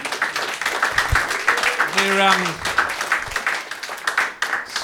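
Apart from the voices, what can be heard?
audience applause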